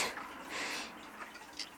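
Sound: old clock ticking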